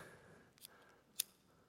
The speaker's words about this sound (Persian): نگاه کنید عزیزان این فندک توش فکر کنم الکل میریزن نمیدونم چی میریزن من سیگاری نیستم اینو پیدا کردیم برای شمعای خونمونه درسته این توش ماده وجود داره